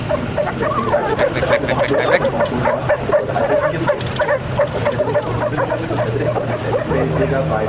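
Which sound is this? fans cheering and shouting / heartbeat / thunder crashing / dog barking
dog barking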